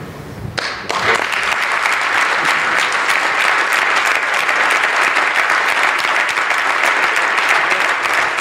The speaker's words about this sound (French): comprenez qu'il y a des applaudissements. souvent, les, les, caquistes sont enthousiastes du discours de leur, euh, de leur chef, de M. Legault.